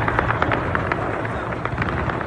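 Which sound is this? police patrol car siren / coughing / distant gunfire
distant gunfire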